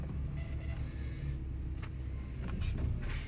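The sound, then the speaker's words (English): A car park ticket machine whirs and clicks out a ticket in a few short mechanical bursts as a car enters the car park, over the steady low rumble of the car's idling engine. “Just a second, I have to get a ticket. I'm going into the car park.”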